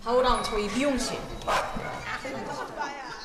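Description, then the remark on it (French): Two large dogs, Yolo and Chupa, the groomers' dogs, bark and yip in short, excited bursts in the grooming room of a dog daycare as they try to leave just after a haircut, amid background chatter from people. “Yolo et Chupa, deux imposants chiens, tentent de sortir de la salle juste après avoir reçu une nouvelle coupe de cheveux.”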